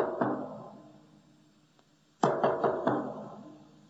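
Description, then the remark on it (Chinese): The BBC radio interval signal used during the Second World War to open broadcasts, Beethoven's Fifth Symphony opening rhythm tapped on a deep drum: three quick resonant knocks and a fourth left to ring, after a lone booming stroke and a pause. No talking. “所以啊，在第二次世界大战期间，代表自由之声的 BBC 广播电台就以第五交响曲这个开头作为广播开头的暗号。”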